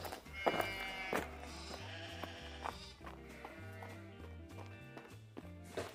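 Sheep bleat in wavering, nasal cries over a steady musical backing, several calls overlapping at moderate loudness with no talking.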